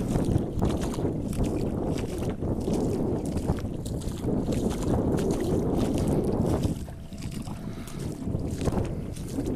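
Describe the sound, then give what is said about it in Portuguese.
Continuous sloshing and splashing of water as a person wades into it while the tide is going out, with a steady rush of wind noise on the microphone and no talking. “Vou entrar na água aqui.”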